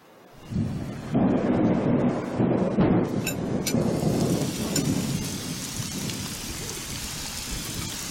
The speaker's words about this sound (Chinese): 不会吧？ 不会吧？这么巧，这时候下雨。 那要不要进去避一下雨啊？